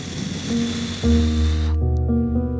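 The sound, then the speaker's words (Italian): A long, steady puff of breath pushed out through the mouth after breathing in through the nose and holding the air in puffed cheeks during a breathing exercise, a breathy hiss lasting about a second and a half before cutting off, over soft sustained musical tones. “3-4 secondi e ripetiamo l'ultima respirazione con questa modalità inspiro naso, trattengo aria guance gonfie, butto fuori bocca”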